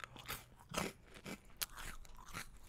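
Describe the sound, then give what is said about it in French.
Dry crunching as someone bites into and chews a freeze-dried strawberry, a quick series of crisp, crackly bursts with short pauses between them, no talking. “Je sais pas si vous, vous entendez quand je croque dans le dans le bousin ou pas Je le fais exprès.”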